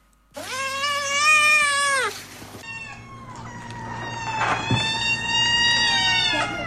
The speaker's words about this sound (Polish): Proszę, kot drugi mówi tak.